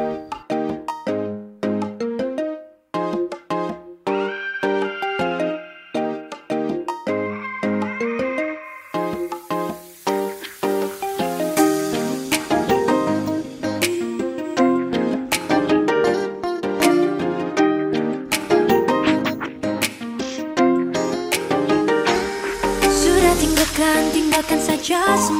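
A pop song intro plays loud and clear, opening with a bright, bouncy melodic riff before drums and cymbals kick in around the midpoint and the full band swells. No one speaks.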